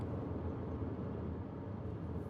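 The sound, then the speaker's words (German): Steady low rumble of a car driving, heard from inside the cabin, a constant engine and road drone with no voices, on the way to a suburb of Salzburg in summer 2022. “wir sind mit dem Auto auf dem Weg zu Maria”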